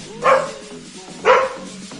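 A dog barks twice, about a second apart, each bark short, sharp and mid-pitched, standing out clearly over a faint, low background murmur.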